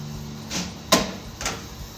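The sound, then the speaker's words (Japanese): A portafilter with tamped coffee grounds is fitted and locked into an espresso machine's group head before extraction: a soft scrape, then a sharp metallic clack and a shorter grinding twist, with no voices. “エスプレッソの抽出にここから入りますねその抽出口グループヘッドっていうところから、まあ、空出しする場合は空出ししてでポルタフィルターをはめて”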